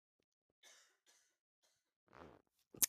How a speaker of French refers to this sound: Alors du coup je tousse aujourd'hui, donc c'est pas super pour enregistrer. Mais j'allais dire, et je vais retousser du coup, parce que sinon c'est pas drôle.